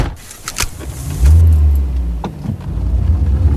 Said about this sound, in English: Car turning right, car turning right.